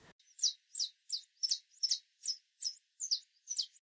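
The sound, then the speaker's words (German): A bird chirps in a quick, steady series of about nine bright, high-pitched notes, each evenly spaced and clear against an otherwise quiet background with no voices. “Hören wir hier wirklich Vogelzwitschern, von dem auch schon die groben Märchen berichten?”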